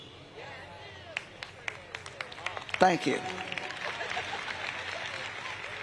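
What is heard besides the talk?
audience applause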